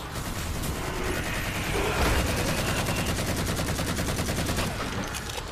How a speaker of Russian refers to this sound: Что это было? А, это он мне с дробовиком?